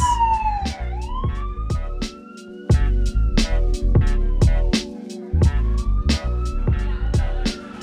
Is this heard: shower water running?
no